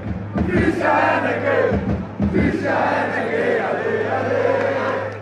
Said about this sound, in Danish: der stod et helt stadion ude på Vestegnen og sang den der